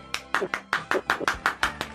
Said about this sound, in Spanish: Está … con nosotros. ¿Aplausos?